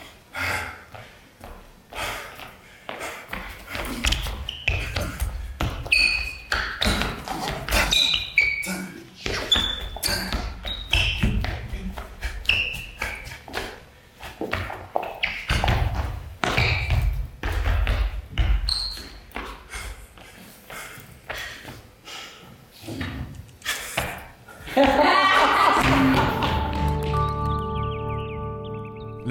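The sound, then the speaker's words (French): Dancing shoes tap out fast, sharp, rhythmic beats on a stage floor in a brief street dance solo from a video, over quiet music with high chirping notes, ending as a loud sustained musical chord swells in. “qu'on a entendu dans le clip à la fin, là, je sais pas si vous entendiez les bruits de, souliers, mais ça, c'était un bref solo”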